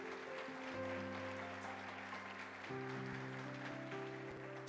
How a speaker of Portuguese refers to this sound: Aplauda Jesus por isso, por favor.